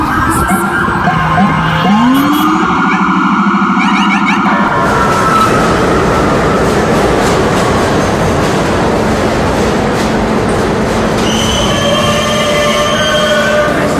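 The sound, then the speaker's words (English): A New York subway train, a Queens-bound E train running via the F line, runs loud, a rising electric motor whine and squealing wheels giving way to a steady roaring rumble, with faint tonal notes near the end and no one speaking. “This is a Queens-bound E-train via the F line.”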